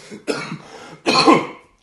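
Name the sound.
coughing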